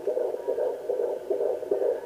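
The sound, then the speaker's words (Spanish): Rhythmic heartbeats of a pregnant mother and her fetus pulse through a steady, muffled whooshing, two hearts beating together as heard through a monitor; continuous, with no voices. “En seguir con la marcha, con los pasos, los latidos de estos dos órganos rojos que yo tengo, que tendré.”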